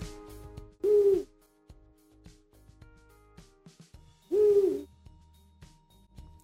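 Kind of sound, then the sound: bird, eurasian eagle-owl hooting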